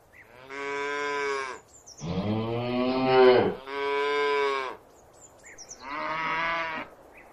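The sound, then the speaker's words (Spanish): An ox moos four times in a row, each call a loud, drawn-out, throaty bellow lasting about a second, separated by short pauses. No one speaks. “Fíjate, si era humilde la Virgen María, que dio a luz en un pesebre junto a una mula y un buey.”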